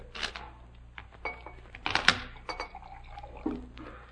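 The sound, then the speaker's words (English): A waiter refills Mr. Holmes's empty glass, the drink poured with a soft trickle, punctuated by a few light clinks of glassware. It's quiet, with no one speaking. “Uh, Pomfret, Mr. Holmes's glass is empty.”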